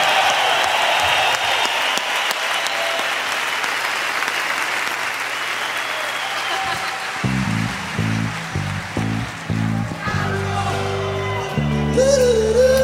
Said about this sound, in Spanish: Que sea un aplauso chido para ellos. Que vienen a engalanar con su presencia la tocada. Que sea un aplauso para ellos y para sus familias que vienen a traerlos al rock and roll.